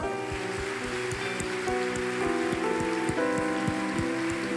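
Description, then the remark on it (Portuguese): Audience applause, a dense, even patter of many hands clapping steadily for several seconds, with sustained musical tones held underneath and no one talking. “Pode aplaudir isso aqui.”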